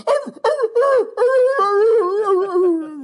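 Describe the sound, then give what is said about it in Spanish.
A voice imitating the crying wail of a cartoon dog, a dog from the cartoons with Shaggy that gets scared of everything: three short sobbing yelps, then one long, loud, wavering howl that slowly slides lower in pitch. “ahí va el, perro llorón.”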